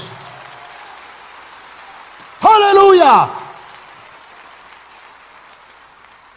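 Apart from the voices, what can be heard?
audience applauding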